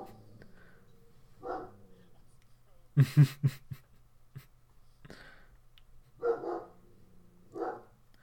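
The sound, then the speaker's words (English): A dog barks several times in a quick burst of three or four sharp barks, fairly loud, with people talking intermittently before and after. “Yeah, my dog is barking.”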